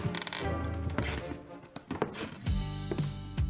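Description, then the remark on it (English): Heavy footsteps thud up wooden stairs, each step drawing a groaning creak from the boards, fairly loud in a steady climbing rhythm. “The creaking noise you hear while climbing the stairs.”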